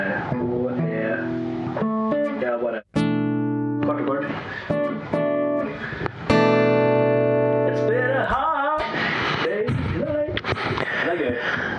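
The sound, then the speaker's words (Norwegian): A guitar plays a short series of single, ringing notes, B, E, A and D, one after another, each left to sustain, before voices start talking near the end. “Og da tenkte jeg umiddelbart at du kan spille en H, en E, og en A og en D.”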